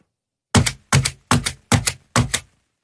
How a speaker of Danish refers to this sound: Jeg synes, Prøv at se, hvor lidt lyd du kan lave med det stempel